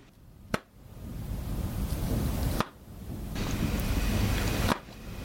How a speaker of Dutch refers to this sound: Ja, moeilijker dan normaal, maar blijkbaar niet te moeilijk, want een paar luisteraars wisten wat dit was. Namelijk het geluid van een dichtklappende Galaxy Z Fold 2.